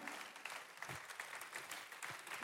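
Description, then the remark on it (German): An audience claps steadily in praise to God, a dense, continuous patter of many hands at fairly even loudness throughout, with no voices standing out. “ich weiß, ist nicht so natürlich, aber ich möchte dich bitten, gib Gott einen Praise Break hier im Herz, schrei was raus, lass uns mal klatschen und sagen, Gott, ich danke dir, dass du immer noch mit mir durch das Tal des Todes durchgehst.”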